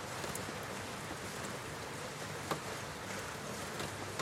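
Steady rainfall hisses, a soft continuous wash with an occasional sharper drop tapping against a window's glass. No voices, just the even patter of rain throughout.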